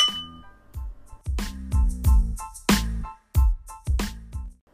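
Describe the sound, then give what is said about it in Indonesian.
Several bright glass clinks ring out in an uneven series as glasses are clinked together in a toast, each with a short resonant ring and a dull knock underneath, with no one talking. “3, 2, 1 Welcome to Tipsy Brother Podcast Cheers”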